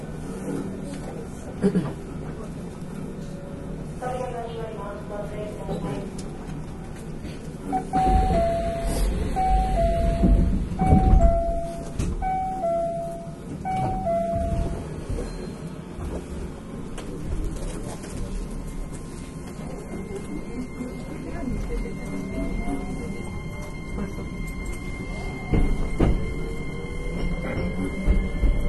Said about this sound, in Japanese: まもなく扉が閉まります。扉付近のお客様はご注意ください。